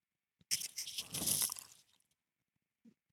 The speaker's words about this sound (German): Und was ich auch gehört habe, dass die Leute das lieben, wenn man dabei isst.